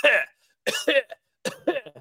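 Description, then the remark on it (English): A series of harsh coughs: one sharp burst, a short pause, then two quick clusters of raspy coughing, loud and dry with no talking. “I was just coughing.”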